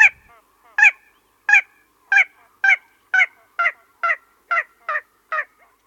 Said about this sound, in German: Ja, das ist des Nachts, also wenn da gar nichts weiter sonst zu hören ist, großartig, außer vielleicht der einen oder anderen Eule, dann schon ein lustiges Geräusch, also eine singende Ralle, ein Sumpfhuhn. Mal wieder das kleine Sumpfhuhn,